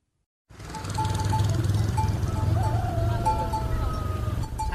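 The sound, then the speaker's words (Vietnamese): Hollow wooden buffalo bells clank repeatedly in an irregular, overlapping rhythm over a dense low rumble as buffalo move along National Road 153 toward the Cán Cấu buffalo market in Si Ma Cai district, Lào Cai province, Vietnam, between night and early morning; several bells ring at once. “Từ đêm đến sáng sớm, quốc lộ 153 đã rộn rã tiếng mõ trâu hướng về con dốc cán chư sử nơi họp phiên chợ cán cấu vào thứ bảy hàng tuần.”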